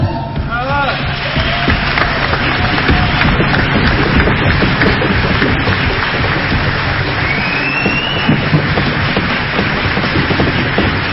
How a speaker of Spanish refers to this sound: Recibimos con un fuerte aplauso a Eva Wolf.